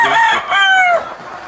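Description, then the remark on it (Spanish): Hens clucking, two drawn-out calls in quick succession, the second sliding down in pitch before fading into quiet background noise. “Aquí no se golpean las gallinas.”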